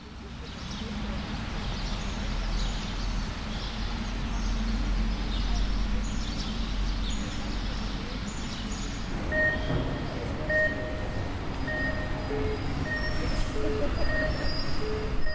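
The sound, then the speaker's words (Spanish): City park ambience in the Albia gardens at 11 a.m. on a Sunday morning in May: a steady low urban rumble with murmuring voices, and from about midway bright bird chirps ring out repeatedly over the background hum. “Empezamos nuestra breve ruta en los jardines de Albia.”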